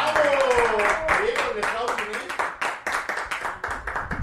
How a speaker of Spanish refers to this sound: ¡Aplauda!